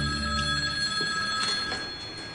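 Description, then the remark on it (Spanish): A telephone rings with a steady, bright electronic tone, sustained and sounding alone without any voices. “Sí, dígame. Manolo, al teléfono.”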